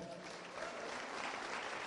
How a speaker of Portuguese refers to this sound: Aplauda o Senhor.